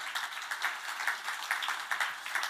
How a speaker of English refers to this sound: So let's give him a round of applause as well.